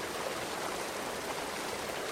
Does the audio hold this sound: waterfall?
yes